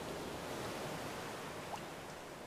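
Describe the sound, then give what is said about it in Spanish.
A soft, steady wash of water, like gentle ocean waves lapping continuously at low volume, with no distinct breaks or crashes and no voices. “Sin embargo, solo fui mecida por las olas que intentaban calmarme con su suave vaivén.”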